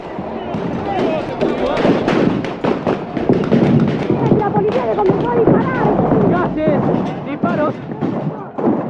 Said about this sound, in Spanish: balas de goma, piedras que vuelan. Esta situación se ha descontrolado. Tremendo lo que está ocurriendo. Grandes enfrentamientos en la zona. La policía dispara contra los piqueteros. Estos están retrocediendo hacia el puente.